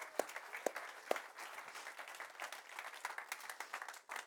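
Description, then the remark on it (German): An audience applauds steadily in welcome one morning, a dense patter of many hands clapping at an even level, with a few sharper individual claps standing out near the start. “Lass mal sie mit einem kräftigen Applaus und unserer ganzen Liebe willkommen heißen heute Morgen.”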